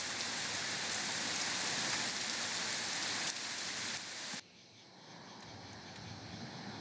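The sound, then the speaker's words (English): Steady, dense rain patters on surfaces as a loud continuous hiss, then abruptly drops to a softer patter for the last few seconds. No voices. “Very rainy out.”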